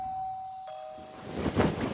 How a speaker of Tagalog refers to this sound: Isang doorbell ang gumising sa akin.